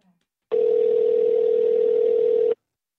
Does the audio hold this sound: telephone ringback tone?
yes